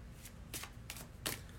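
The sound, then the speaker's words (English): A deck of tarot cards being shuffled, with three short papery riffling bursts spaced about a third of a second apart, fairly quiet and with no one talking. “So I think they're shuffled enough.”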